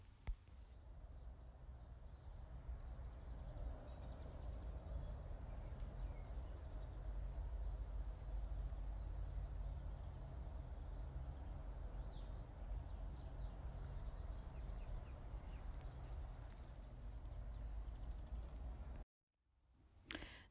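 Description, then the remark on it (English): A steady low rumble of traffic from the surrounding roads fills the background, with faint, scattered birdsong chirping from trees in the foreground, in Queen's Park, a park in the centre of the city; no one speaks. “Now, what we've got there is the cars in the background with the birds in the trees in the foreground because the whole park is surrounded by roads and residential and commercial and it's right in the center of the city”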